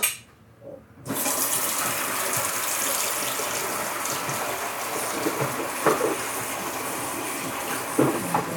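After a brief moment of quiet, a kitchen tap turns on and water runs steadily in a loud hiss, with a few faint knocks as a head of broccoli is washed under the stream.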